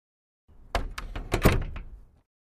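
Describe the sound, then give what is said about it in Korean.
A door being handled: a short run of wooden knocks and thumps, rattling and clunking for under two seconds as it opens and shuts when someone goes out, with no voices. “랑드리는 묵묵히 그 말을 따랐으며 문을 나선 후에는 뒤도 돌아보지 않았다.”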